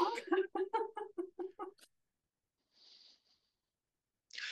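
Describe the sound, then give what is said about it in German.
A human voice imitates a strange bird's clucking with a quick, even run of about eight close clucks, followed by a soft breathy exhale and a short hiss at the end. “So, so, so, du seltsamer Vogel.”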